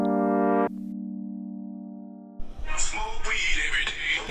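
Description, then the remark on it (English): A phone rings with a musical electronic ringtone: a buzzy sustained tone that slowly fades, then a louder, busier burst of bright jangling notes, prominent with no talking. “That's my phone. Hold on.”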